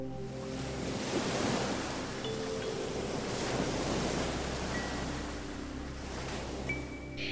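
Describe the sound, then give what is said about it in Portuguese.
Steady ocean surf washes in and out, a broad rushing roar that swells and eases gently over several seconds, with a faint hint of wind and no voices. “Por isso, a gente precisa parar de enxergar a vida, gente, e as nossas atitudes como uma linha reta e ver mais como uma onda do mar uma onda que vem e que vai.”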